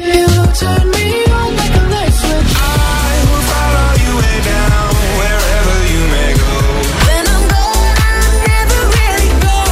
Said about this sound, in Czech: Eh, když se dovoláte jako třetí do studia, my vám pustíme mix pěti songů. Rychlej mixík. Vy si budete muset zapamatovat, co za interprety v tom mixu hrálo a pak nám je ve 30 vteřinách eh, vyjmenovat. Ten mix zní nějak takhle.